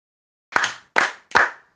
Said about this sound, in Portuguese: Mas agora, olha só, eu vou fazer três palmas e vocês vão ouvir para dizer se foi num ritmo mais lento ou se foi num ritmo mais rápido do que o anterior, tá bem? Presta atenção.